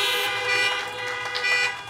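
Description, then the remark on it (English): Several car horns honk together in a sustained, overlapping blare, loud and continuous for the whole moment, with a low engine rumble underneath and no talking; drivers beep their horns to thank and congratulate graduates. “If you will, give them a hand clap or beep your horn and thank them.”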